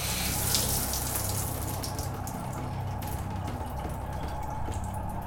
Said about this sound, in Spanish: De su mojado cuerpo caen pesadas gotas que son claramente audibles al chocar contra el plato de ducha de fina cerámica en ese silencio apabullante.